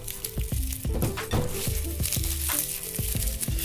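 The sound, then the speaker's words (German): Dry papery crinkling and rustling as the thin skins are peeled from two garlic cloves, a steady run of small crackles over a soft rhythmic musical beat in the background. “Freie auch die von der Schale.”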